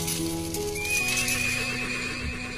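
A horse whinnies in a long, wavering call while hooves clip-clop steadily underneath, fairly loud, with no talking.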